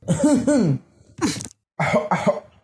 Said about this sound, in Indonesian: ulang ulang kalau gitu batuknya ulang dong